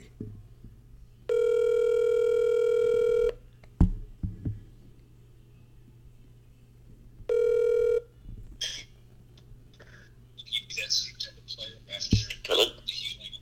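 A phone call rings out: two loud, steady, buzzy ringback tones about two seconds and one second long, separated by a pause, followed by clicks and crackly line noise.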